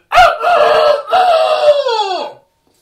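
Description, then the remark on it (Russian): A man's voice imitates a rooster's crow: a single loud, drawn-out cock-a-doodle-doo in several rising and falling segments, ending in a sliding downward tail, alone. “Ну, я уже разучился, а тогда я лучше его пел.”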